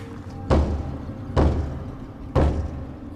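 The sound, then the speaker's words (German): Three heavy, dull knocks on a thick wooden door deep underground at the end of a dark tunnel, evenly spaced about a second apart, each ringing out briefly with a low boomy resonance; no voices. “Er atmete tief ein und klopfte an.”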